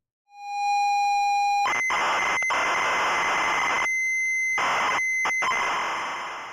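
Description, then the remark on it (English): A steady, pure electronic tone holds for over a second, then gives way to a loud, harsh screech of modulated audio tones encoding a computer program, pressed onto the B side of a 45 record, continuing with a few brief dropouts. No voices are heard. “so Sievey wrote a program and converted it to the modulated audio tones”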